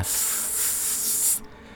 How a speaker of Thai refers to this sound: อยู่ดีๆ เสียงเพลงวิทยุครับจากในเครื่องเนี่ยที่มันเปิดคอมา มันเหมือนกับว่าถูกคลื่นแทรกครับ คล้ายๆ กับเป็นเสียงดังซ่า